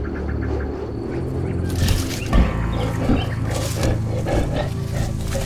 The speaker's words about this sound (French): Quoi Mais ma foi, un lion